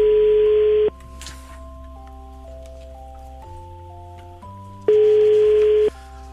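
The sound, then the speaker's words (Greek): A phone call rings out unanswered: two loud, one-second ringback tones about four seconds apart, with faint steady background tones between them and no one picking up. “δεν ακούω να το σηκώνει”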